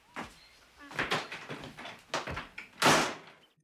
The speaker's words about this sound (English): And then, like huffs and like slams the door.